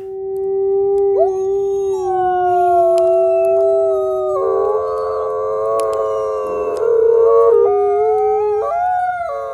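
Three wolves howl together in a sustained chorus, long wavering tones overlapping and sliding in pitch, with one voice rising higher partway through. Loud, no talking.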